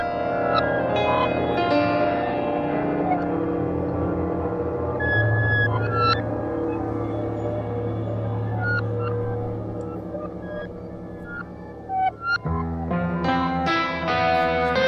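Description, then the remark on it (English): Warped, reversed-sounding squeaks and squeals drift beneath a dense, atmospheric music bed, with short pitch-bending tones surfacing throughout before the track shifts into a brighter, busier section near the end. “Yeah, um, those little uh, backwards sounding squeaks and squeals underneath the beginning of this track.”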